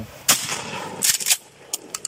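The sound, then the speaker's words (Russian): A sharp blast from a loaded shotgun, safety off, fired at a bottle, with a rumbling decay, followed by a cluster of further bangs and then three short, crisp clicks or pops; no one speaks. “Ружье, о котором идет речь, из которого Засорин застрелил одногруппников, можно легко спрятать и пронести.”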